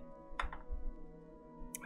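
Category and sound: household object, dice being rolled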